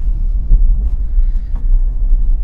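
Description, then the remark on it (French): Steady low rumble of an electric car rolling slowly through town at about 30 km/h, heard from inside, continuous and fairly loud with faint road noise and no talking. “Voilà, je vous laisse un petit peu écouter le bruit du moteur, comme on dit.”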